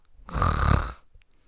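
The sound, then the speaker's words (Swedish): A person imitates a single loud snore with their voice, a rough, rattling breath lasting under a second, followed by quiet. “Du vet, så då började jag försöka anpassa mig till hans snarkning och ibland så hoppar han över en snarkning.”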